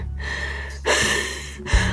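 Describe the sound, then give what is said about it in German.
A heavy gasping breath of a dying father in his bed as he moves his arm from left to right, one long labored inhale-exhale followed by a sharper second gasp, raspy and strained, with no talking. “Er keuchte, während er den Arm von links nach rechts bewegte.”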